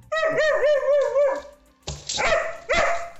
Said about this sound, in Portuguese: Aliás, teve latido seu durante a live que eu ouvi